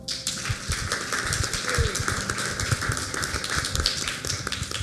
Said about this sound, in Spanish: Y yo quisiera también que le pudiéramos dar un fuerte aplauso a nuestro apóstol, por favor.